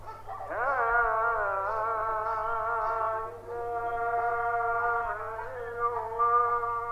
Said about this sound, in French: Il est quatre heures du matin dans le village de Janachar. Réveillés, nous entendons l'appel à la prière.